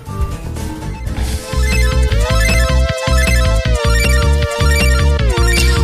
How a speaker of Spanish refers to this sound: podría resumiroslo con la canción de la intro para ver si os, si os suena algo.